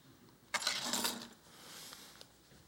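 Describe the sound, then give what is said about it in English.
A short metallic jangle of car keys, a bright clinking burst lasting under a second, followed by quieter rustling and a single faint click, with no talking. “Car keys.”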